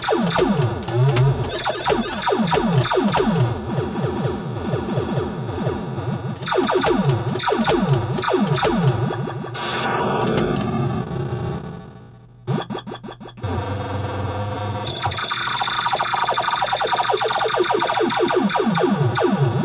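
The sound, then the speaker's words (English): Loud electronic sounds from a Quicksilver pinball machine: rapid buzzy tone sweeps rising and falling in quick bursts, with a dense, distorted texture, a short dip in the noise midway, then more chirping effects. “The Classic Pinball Podcast - Quicksilver sounds revisited”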